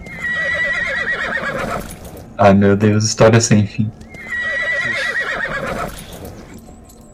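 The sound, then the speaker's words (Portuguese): A horse that has fallen and is stuck in a pit neighs in a long, wavering whinny, a man briefly exclaims, and then a second drawn-out whinny follows, both loud. “o cavalo do A-Rock cai ali e Rainrock, você sente que ele ficou preso dentro do poço”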